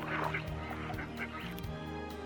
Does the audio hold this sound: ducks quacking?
yes